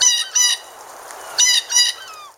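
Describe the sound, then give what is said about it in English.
A bird calls four times in two quick pairs of harsh, nasal squawks, loud, with a brief pause between the pairs and no voices. “As fall migration arrives, apps that ID birds by sound have taken off.”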